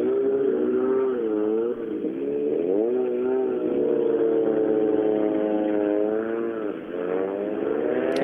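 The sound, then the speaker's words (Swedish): Several racing car engines rev and drone together in a loud, continuous roar as many cars arrive at the finish of a race, their pitches rising and falling and overlapping for the whole stretch, with no voices over them. “Det är många bilar här nu i, i målet.”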